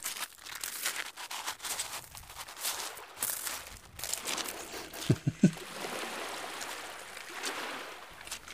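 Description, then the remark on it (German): Crunching footsteps tread steadily through dry sand toward the sea in the morning, a soft gritty crackle with each step, over a continuous hiss of moving water. No one speaks. “Also es, es klingt nach meinem Morgenritual. Dem Weg durch den Sand und dem Gang ins Meer.”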